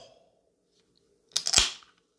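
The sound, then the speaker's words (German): A can of Orange Vanilla Cola pops open with a sharp metallic crack followed by a short burst of fizzing hiss, after a near-silent pause and with no one talking. “Jetzt machen wir mal ein kleines ASMR. Hört mal zu bei dem Geräusch.”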